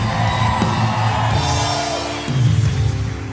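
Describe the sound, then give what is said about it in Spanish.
An audience shouting out together in a loud burst of overlapping voices and whoops after a preacher calls for someone to shout, sustained for a few seconds with a fresh surge of cheering near the end. “El día en que mueras tendrás victoria. Alguien grite acá.”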